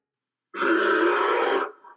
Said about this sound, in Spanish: Repetición del sonido. Y la respuesta es... ¡El oso! El oso, claro que sí.